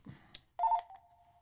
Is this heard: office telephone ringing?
yes